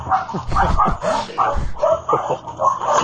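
A small dog named Frida, from the flat upstairs, barks and yips in quick, excited bursts, about half a dozen sharp high-pitched calls over a few seconds, fairly loud with a slight echo.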